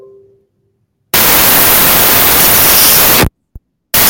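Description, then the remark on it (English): Loud, harsh static hiss on a caller's phone line bursts in after a brief quiet tone, roars steadily for about two seconds, cuts out, crackles once, then returns abruptly. “Unfortunately, there's some static on your line.”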